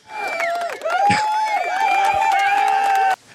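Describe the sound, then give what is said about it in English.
A burst of canned crowd applause and cheering played from an applause button sounds loudly for about three seconds, with whooping voices and a sustained whistle, then cuts off abruptly. “I'm actually gonna throw on the applause button.”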